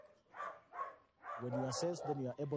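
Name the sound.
dog barking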